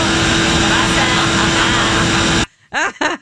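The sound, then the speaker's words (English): A liposuction vacuum hose, the old-school invasive kind inserted to suck fat out, sucks with a loud, steady roaring hiss and low motor hum for over two seconds, then cuts off abruptly, followed by a short vocal exclamation. “this is the invasive old school, you know, like vacuum vacuum hose.”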